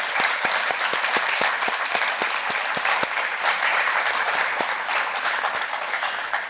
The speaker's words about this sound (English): Can we give her another big round of applause, please? Thanking her.